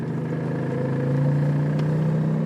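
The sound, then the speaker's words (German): The small engine of a moped car in Giessen, a very small car with automatic transmission and a top speed of 45 km/h, hums steadily, its low drone rising slightly in pitch midway as if gently accelerating, with no one speaking. “ich schaue mir in Gießen ein Moped-Auto an”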